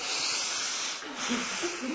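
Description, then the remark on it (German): A person demonstrates shallow chest breathing: one sustained, airy, hissing breath lasting about two seconds, fairly loud and steady, with no talking over it. “Die atmen dann nämlich so.”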